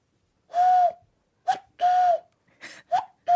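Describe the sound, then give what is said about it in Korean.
Nam Chang-hee imitates a cuckoo call as his party trick, with breathy, hooting whistles, repeating the two-note pattern several times at steady moderate loudness, with no other sounds. “진짜 9890님 개인기라고는 뻐꾸기밖에 없어요.”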